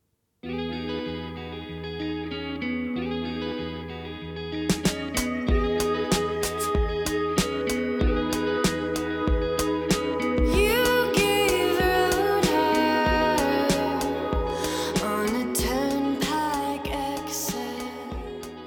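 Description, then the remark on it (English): An indie rock track opens on a sustained, layered drone of effects-laden guitar. After about five seconds, steady drum hits enter, and the dense, distorted texture builds and swells throughout with no singing. “Uh, but we have this other track here. Should we play this?”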